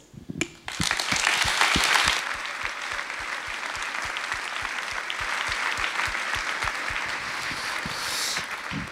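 An audience breaks into sustained applause, many hands clapping densely at once; it swells loudest early on, then settles into a steady, even clatter that continues to the end.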